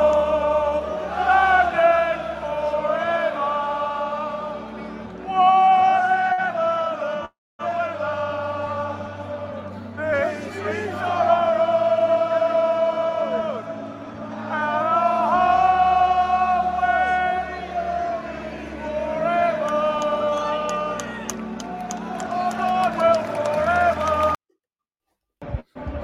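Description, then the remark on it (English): A stadium crowd on the North Bank sings along loudly in unison without lyrics on a screen, a dense, sustained wall of voices carrying a chanted melody, broken by a brief pause midway and a short cut near the end. “caught onto it and and sang along”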